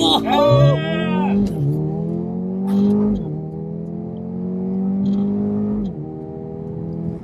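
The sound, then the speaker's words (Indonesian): A car that is not all-wheel drive makes a launch-control start with traction control switched off, the brake pressed hard, the accelerator floored and the brake released. Its engine pulls hard under full acceleration, the roaring pitch climbing and dropping back at several quick gear shifts, loud throughout. “setelah itu dua tinggal injek rem dalam-dalam terus habis itu kita injek gas dalam-dalam dan lepas santai santai”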